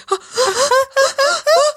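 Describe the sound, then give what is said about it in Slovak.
A voice imitates strained, gasping breathing and a deep inhale, as at sexual climax: a series of short, tense, voiced inhalations in quick succession, fairly loud, with no words spoken. “A že si si vlastne ani neužila ten vrchol, vieš, to, to takéto, to, jak by som to povedala, že to stiažené dýchanie, ten nádych hlboký a potom také, že”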